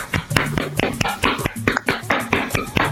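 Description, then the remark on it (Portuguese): Steady hand clapping in praise of French footballer Umtiti's goal against Belgium, around nine or ten sharp claps in a quick, even rhythm, with voices talking and laughing underneath. “Vamos bater palmas, nesse cara aí.”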